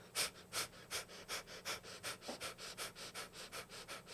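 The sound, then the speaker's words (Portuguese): Quick, rhythmic panting breaths, about three or four sharp huffs per second, held at a steady pace like a dog's panting, done as a belly breathing exercise with the belly pulled in and no breath taken between huffs. Moderately quiet, with no talking. “É tipo como se fosse um cachorrinho mesmo. É um exercício de respiração, parece.”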